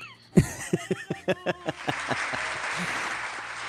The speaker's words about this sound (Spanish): y él sí aplaude y todo.